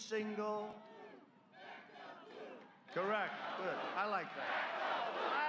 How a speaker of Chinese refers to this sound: 民众大喊支持警察，支持蓝色的制服。